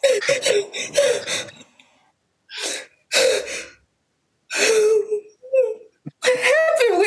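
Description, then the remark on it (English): A young woman covered in dirt, just pulled out of the rubble of a collapse caused by an earthquake, gasps for air in a series of ragged, breathy bursts, some edged with voiced whimpers, separated by short pauses; fairly loud, with no talking. “While she gasps for air, she calms down a bit”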